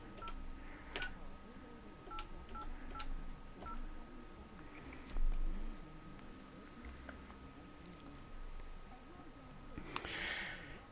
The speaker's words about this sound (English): We had a little glitch in our internet there, and when that happens, it uh, it tends to interrupt the phone call. So let me try and see if I can dial him back real quick and carry on with our conversation.